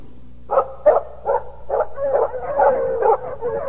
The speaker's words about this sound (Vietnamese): Bỗng có tiếng chó sủa